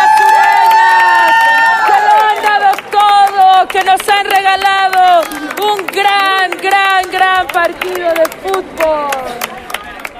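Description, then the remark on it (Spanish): A loud crowd at a football match cheers continuously for the team Cero Potencia, many voices shouting and whooping over one another, with scattered clapping mixed into the roar throughout. “¡Un fuerte aplauso para Cero Potencia,”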